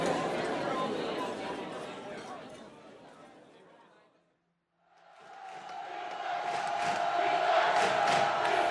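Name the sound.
football stadium crowd cheering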